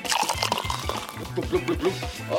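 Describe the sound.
Water glugs into a container, poured to mix creatine, in a quick, steady series of low, rhythmic gulps, fairly loud, apparently a voice imitating the pouring sound.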